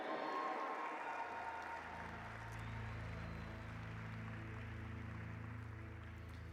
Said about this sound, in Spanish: Dale un fuerte aplauso a Jesús. Eso, emocionate. Da gritos de júbilo y apláudele fuerte al rey.